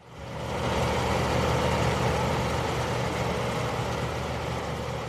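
A maize harvester's engine exhaust rumbles steadily, rising over the first second and then holding a loud, even, low droning roar with no one talking.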